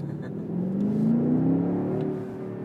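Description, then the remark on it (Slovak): The engine of a 2.5-ton petrol car accelerating as the throttle is pressed, its steady hum rising in pitch as it revs up for about a second, then settling back to a lower drone. No one speaks. “Ale dobre to seká oný chrbát, akože keď pridáš plyn, normálne by to som si niečo spravil.”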